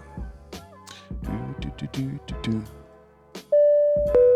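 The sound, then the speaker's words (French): A bright stream alert chime, played as a test, rings out clearly near the end, a sustained ding-dong tone that holds for about a second, following a stretch of busy voice-like sounds. “Attends, je se faire un test de Twitch de ma super souris.”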